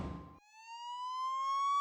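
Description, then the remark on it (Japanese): A brief rumbling burst of noise gives way to a police car siren as the car pulls up and stops in front of a hotel, its single wailing tone climbing steadily in pitch, loud, with no voices. “ホテルの前でパトカーが止まりラブール警部とベルマン巡査が降りてくるとコアラ社長と虎たちは急いで2人を出迎えました。”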